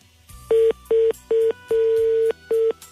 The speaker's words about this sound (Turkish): Evet telefon kapandı.